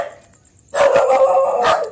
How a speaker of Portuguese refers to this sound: É, né? Então tem os cachorros. Não. Essa daí não morde, é só aquela lá.